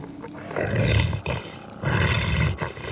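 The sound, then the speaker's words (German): A mammoth roars twice, each a long, loud, deep bellow lasting nearly a second, separated by a brief pause. The roars are powerful, with no talking. “Sei doch still, Mammut. Sei doch bitte still.”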